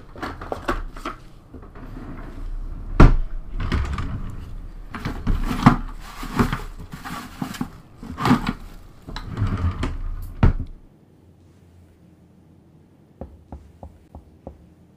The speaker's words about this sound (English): Well, that sounds like normal knocking. I've never heard zombies do that.